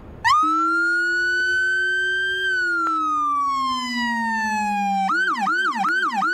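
A loud low-frequency bass siren on a Winnipeg Fire Paramedic Service vehicle, with a deep, heavy bass tone meant to make other vehicles vibrate, holds a long steady wail that slowly sinks in pitch, then switches to a rapid pulsing yelp for the last second.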